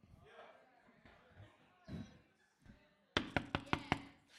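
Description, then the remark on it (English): A voice speaks, then a quick series of about five loud, sharp knocks lands in a brisk, uneven rhythm, like knuckles rapping firmly on a door. “When I knock, let it open.”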